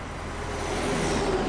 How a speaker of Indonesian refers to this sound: Lalu lalang kendaraan semakin ramai saat hari menjelang sore. Jalan lintas antar provinsi itu dipadati mobil-mobil angkutan berat, juga bis yang saling berebut kecepatan.